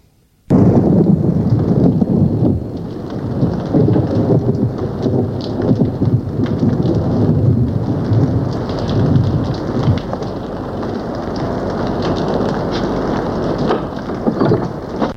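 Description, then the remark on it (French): A thunderstorm roars steadily, with heavy rain pouring and deep thunder rumbling beneath it. The sound stays loud and continuous throughout, and no one speaks. “Un après-midi que mes parents étaient absents, et que j'étais seul avec lui, il y avait fait de l'orage toute la journée.”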